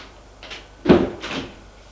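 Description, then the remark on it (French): A door opens as someone enters, with a soft clunk and a brief rattle, followed by a lighter scraping movement, with no voices. “Elle appuie sur le bouton vert, elle entre.”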